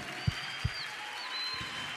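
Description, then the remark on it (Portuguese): An audience applauding, a steady, dense wash of clapping that holds at an even level throughout, with a few low, dull thumps underneath. “Vamos aplaudir forte, gente.”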